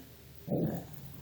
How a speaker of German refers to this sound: Aber ich furze. Oh, es ist fast genauso schön.